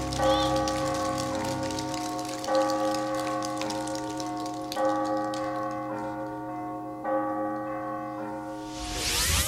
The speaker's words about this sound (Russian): О вере в жизнь поют колокола.